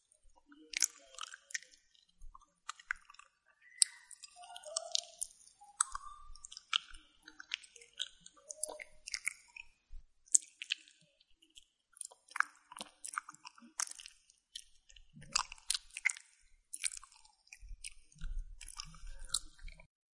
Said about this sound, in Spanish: Y la verdad es que hay poca variedad, solo he escuchado eh, de comida y sonidos como, con la boca como los que acabas de escuchar, pero ¿por qué no hacen otro tipo de ASMR?